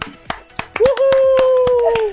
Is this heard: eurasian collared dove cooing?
no